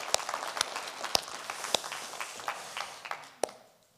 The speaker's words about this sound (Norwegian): Og dere? Skal vi klappe for dem?